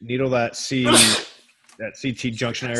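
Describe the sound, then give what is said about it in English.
A single sharp sneeze bursts out in the middle of a man's speech, loud and breathy, followed by a short pause before he carries on talking. “Bless you, bless you.”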